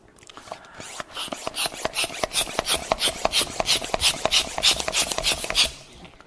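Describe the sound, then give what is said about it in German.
A rubber balloon is handled and inflated: a quick series of rhythmic, raspy rubbing strokes and puffs, fairly loud and bright, with no one speaking. “Und ich möchte diese Vorstellung mal mit einem Luftballon euch vormachen.”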